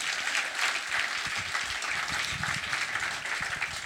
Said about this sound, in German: Applaus für ihn.